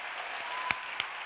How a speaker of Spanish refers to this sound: Quiero pedir fuerte el aplauso porque son formidables.